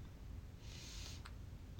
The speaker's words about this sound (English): I just release. I'm releasing a yawn.